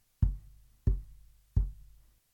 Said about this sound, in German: Der eine der Männer aus der Fremde sagt Hier ist eine Herberge. Vielleicht ist das Kind da. Ich klopfe einmal an. Und das macht er dann auch.